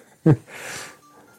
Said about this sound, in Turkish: Şimdi eee, nefes alma sesim yayına gidiyor diye hiç olmadığı kadar fazla nefes alma çabası içerisindeyim.